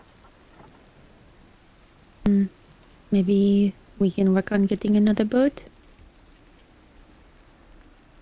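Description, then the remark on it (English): Steady rain hisses continuously across the whole scene, a dense even patter. Midway, a person speaks briefly over it, and the rain carries on after the voice stops. “standing in this rain makes me wish we were back on the open seas.”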